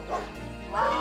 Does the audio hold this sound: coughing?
no